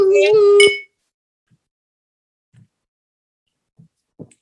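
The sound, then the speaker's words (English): Glasses clink together in a toast, a bright ringing tone that sustains briefly before cutting off, followed by a few faint soft knocks in otherwise quiet surroundings. “Let's cheers to your therapist. Cheers. Kampai. Cheers.”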